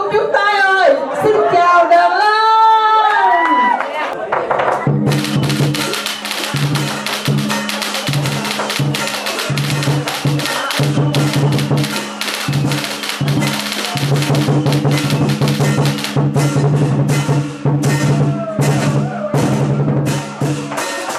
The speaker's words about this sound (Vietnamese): Dạ, mà bữa nay còn xen lẫn với tiếng pháo điện tử nữa chứ. Cứ mỗi lần mà nghe tiếng trống mỗi lần là trong lòng mình tự nhiên thấy rộn ràng vui hẳn lên